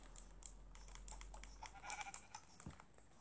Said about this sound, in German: Ein Schaf.